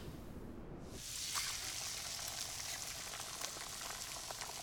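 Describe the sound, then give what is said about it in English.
Eggs and bacon sizzling in a frying pan: a steady hiss of hot fat rising after a second, with scattered crackles and pops continuing throughout, no voices. “I woke up to the waft of eggs and bacon.”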